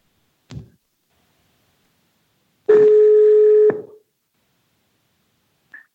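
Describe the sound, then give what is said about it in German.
A single one-second ringback tone from an outgoing phone call placed by voice command through a Gigaset Smart Speaker L800AX, steady and mid-pitched, then silence while the line keeps ringing. A soft click comes just before it and a brief blip near the end. “Es läutet hin.”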